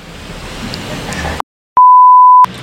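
An electronic doorbell at a studio gives a single steady, mid-pitched beep lasting under a second. It comes right after a brief silence that cuts off a stretch of noisy background sound.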